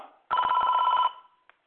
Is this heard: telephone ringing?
yes